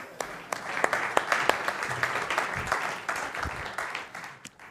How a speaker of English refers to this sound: So you call clapping someone off the stage. That's what that was.